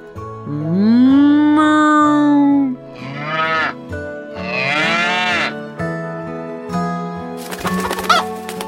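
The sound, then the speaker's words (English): A loud, drawn-out cow moo sounds near the start, followed by several shorter barnyard animal calls and a brief rustling noise at the end. “Dog pig, and cow looked behind the barn. Come out, sun, shouted Cow.”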